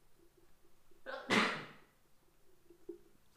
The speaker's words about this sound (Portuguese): Eu acho que perdi a virgindade de espirro no podcast agora mesmo. Será que eu já tinha espirrado? Acho que não. E uma cena interessante é que foi só um. E eu quase nunca espirro só uma vez.